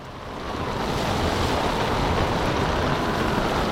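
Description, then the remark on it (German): A steady, roaring rush of wind and churning water, like a whirlwind tearing over waves. It swells in over the first half second, then holds loud and unbroken with no voices. “Dann erfasst der Wirbel sie. Er schleudert sie zusammen mit Millionen Wassertropfen durch die Luft.”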